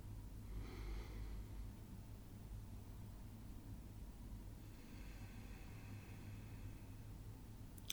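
Two slow, airy breaths drawn in through the nose only, as part of a breathing exercise, one brief and one longer, fairly soft over a low steady hum, with no talking.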